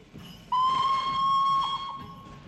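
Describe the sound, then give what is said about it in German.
A steam locomotive whistle lets out one long, steady blast lasting over a second, loud and clear above a low, rumbling hiss of background noise. “Langsam schiebt sich der deutsche Traum dampfend vorwärts.”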